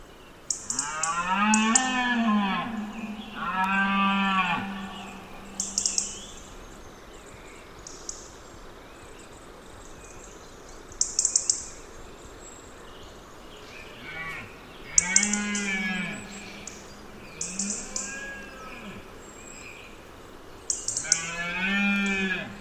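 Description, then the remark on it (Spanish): Deer stags bellow during the autumn rut in a valley in September or October as dusk falls, several deep, drawn-out groaning roars in bursts, some overlapping, with fainter calls and sharp high-pitched cries from a crow and other birds scattered through an otherwise quiet outdoor background. “Porque no son solamente los ciervos los que están berreando, son los que predominan, pero hoy escuchamos, se atardece, había una corneja y algunas aves, algunas aves”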